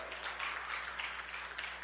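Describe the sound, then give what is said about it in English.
A crowd claps steadily and continuously for joy, a dense wash of many hands at moderate volume with no voices standing out. “Let's clap for joy.”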